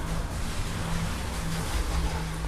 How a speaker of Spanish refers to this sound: Es, ay no, me cago cuando pasan carros, la neta no los soporto. Yo de que disculpen, pero no ven que estoy grabando el mejor podcast del mundo y que por favor tengan la esencia de no pasar por esta calle, gracias.